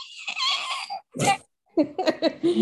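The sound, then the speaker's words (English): A person imitates the dragon sounds heard on a ship as Daemon's dragon flies close to the boat: a long raspy, hissing growl, a sharp breathy burst, then a run of short guttural snarls, with no words spoken. “and they all hear like dragon sounds, like”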